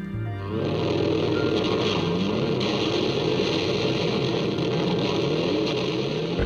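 A distorted electric guitar roars through an overblown amplifier, imitating a revving motorcycle for an album's title track: a loud, gritty, sustained growl whose pitch rises and falls in waves after a brief low note at the start.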